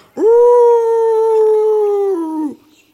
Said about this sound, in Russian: В лесу волков видели совсем близко от нашей деревни. И по ночам их вой слышно так вот.